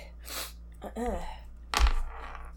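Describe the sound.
A sneeze from one person: a breathy intake and rising voiced wind-up, then a single sharp, loud burst of air, with a brief noisy trail afterward.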